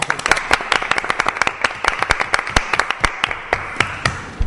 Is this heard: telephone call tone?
no